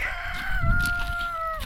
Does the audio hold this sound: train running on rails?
no